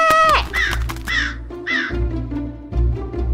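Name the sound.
crow cawing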